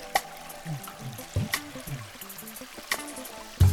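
Fresh, clear water gushes and splashes from an old hand pump as a man pumps its handle, in a steady, moderately loud flow, broken by a few sharp spattering bursts, with a louder splash at the very end.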